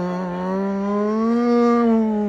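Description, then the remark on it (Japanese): A person's voice imitates a trumpeter on a moving train playing the note G, illustrating the Doppler effect, holding one steady, loud, buzzing tone for about two seconds. The pitch rises gently midway and then dips slightly, like a passing horn. “オランダのウトレヒトで、えー、列車に乗ったトランペット奏者が G の音ねゲーの音を吹き続けそれを絶対音感を持った音楽が聴いて音程が変化することで証明した”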